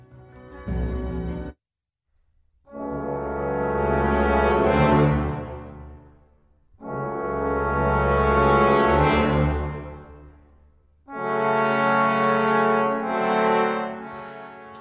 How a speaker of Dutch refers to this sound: Je hoort het muziekstuk Finlandia van de Finse componist Jean Sibelius.